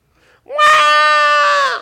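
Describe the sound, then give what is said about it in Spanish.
A newborn baby lets out one loud, sustained wail lasting just over a second, close and piercing with a slightly rising then steady tone, after a brief faint whimper. “Dejaste todo lo que estabas haciendo para ver qué estaba pasando en Un guá te cambió la historia.”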